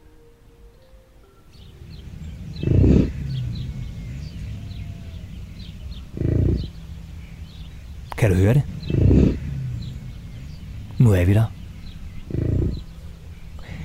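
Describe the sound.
Deep, rumbling bison grunts and bellows come in roughly six loud bursts over a quiet forest backdrop with faint birdsong, while a person speaks briefly; the bison live in the Almeningen forest on Bornholm, Denmark.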